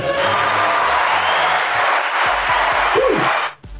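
A crowd at a business networking meeting cheers and claps loudly for several seconds for a magician after his 30-second pitch, a dense wash of applause with whoops mixed in, then it fades out abruptly near the end.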